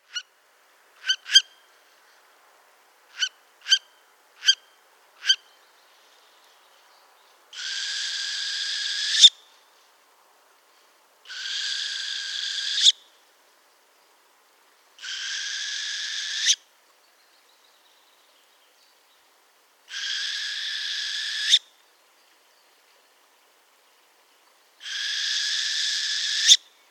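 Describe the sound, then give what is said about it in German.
A few sharp clicking notes, then an owl calling: five drawn-out, raspy calls, each lasting about a second, repeated at steady intervals with silence between. No one speaks. “Ich habe mir den mit Active Noise Cancelling reingezogen und es äh, wäre, als wäre die Eule neben mir gewesen.”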